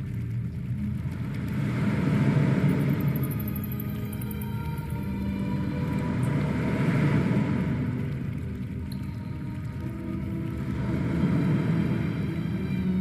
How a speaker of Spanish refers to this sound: Eric eh, agacha la cabeza, pone mucha atención y por debajo del, bramido del mar y de las gotas que de forma constante caen en la cueva